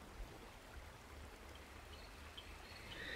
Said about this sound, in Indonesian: Di sini sangat tenang. Hanya ada suara binatang malam dan suara air mengalir.